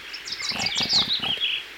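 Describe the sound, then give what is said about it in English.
A series of short, low grunts from pigs over about a second, mixed with bright, chirpy high-pitched squeals and twittering above them. No talking. The pigs are walking on their hind legs and carrying guns. “Those pigs are walking on their hind legs and carrying guns.”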